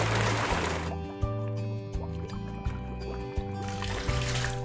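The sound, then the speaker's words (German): A loud rush of sea water surges in at the start, then gives way to a steady watery wash under regular low, rhythmic pulses, with no talking. “Äh, können Sie das Wasser bitte wieder reinlassen? Spüre das Meer.”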